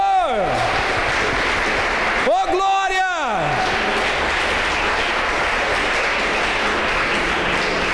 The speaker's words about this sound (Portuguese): E se você crê nisso, aplaude o nome do Senhor.